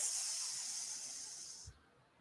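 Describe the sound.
A voice imitates a pressure cooker letting off steam as its valve pin is lifted: a steady, bright hiss lasting under two seconds, cut off abruptly with a faint low thump at the end.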